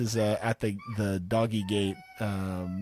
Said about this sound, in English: at my office door, making cooing sounds